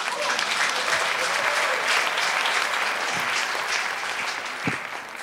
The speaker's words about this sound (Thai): เพราะฉะนั้นขอเสียงปรบมือกับศิลปินไทยหน่อยฮะ